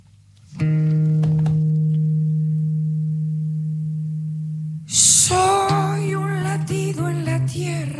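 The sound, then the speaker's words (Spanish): A song opens with a long, steady droning note held for several seconds, then the full accompaniment kicks in and a singer's voice enters, melodic and upfront. “Si quieren, compartimos una canción”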